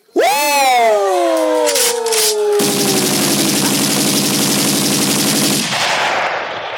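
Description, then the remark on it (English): A loud, drawn-out wail slides downward, then a sustained burst of rapid automatic gunfire sound effect rattles for about three seconds before cutting off, with no talking. “Shots fired.”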